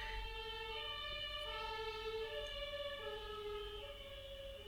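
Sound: ambulance siren passing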